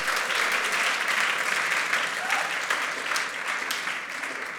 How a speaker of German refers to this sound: Könnt ihr mal der Band einen fetten Applaus geben? Das war der Hammer. Wow.